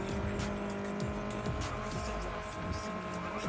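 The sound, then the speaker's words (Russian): A car engine drones steadily throughout, its pitch sliding down and rising again in several sweeps, loud against a constant background rumble of street traffic. “А где трафик уличный, дорожный, хоть какой? Ну вот, машинки, одна.”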